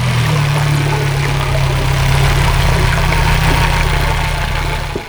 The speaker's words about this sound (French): Et un Zodiac, ça fait beaucoup de bruit.